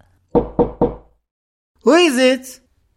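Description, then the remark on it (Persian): Three quick, even, soft and cautious knocks on a front entrance door, then after a short pause a single voice calls out briefly. “صدای ضربه ملایم و محتاط بر در ورودی او را بیش از پیش می ترساند.”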